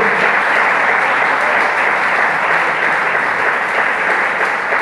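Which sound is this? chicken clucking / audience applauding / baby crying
audience applauding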